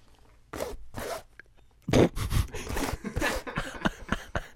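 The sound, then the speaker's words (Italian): Rapid, raspy scratching on a mattress, done to call someone and get up onto the bed, coming in a few short bursts and then a longer busy flurry, fairly loud, with no talking. “io inizio a sentire lei che mi chiama e mi chiama grattando sul materasso”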